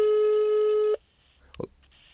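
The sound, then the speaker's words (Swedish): A telephone ringback tone sounds once as a call is placed to another person, a loud, steady electronic beep lasting about a second, then cuts off, followed by near silence and a brief muffled rustle. “Men eh, nu, vi ringer andra personen bara.”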